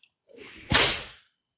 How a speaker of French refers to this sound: Je voudrais le, je voudrais la commande du fouet. ah oui. Alors, ah, attends, un petit coup de fouet.